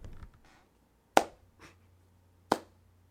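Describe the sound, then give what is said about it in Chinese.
Light, sparse hand claps: two crisp, sharp claps spaced over a second apart, with a couple of softer, fainter pats in between, and no voices over them. “哦对哦，今天都没有拍手到，我们这边拍手一下。”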